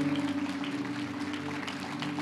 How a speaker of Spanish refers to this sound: Dale un fuerte aplauso, Señor a nuestro Dios.